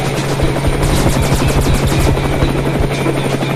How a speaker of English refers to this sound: I don't know if I can get us away from that helicopter.